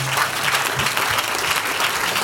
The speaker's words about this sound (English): clap your hands for the man of god